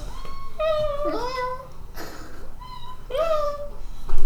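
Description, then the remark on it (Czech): A tomcat meows twice, answering a person who meows at it, a drawn-out wavering meow followed a couple of seconds later by a shorter one, over a low background hum. “Mňoukej na něho zpátky, on tak odmňoukne.”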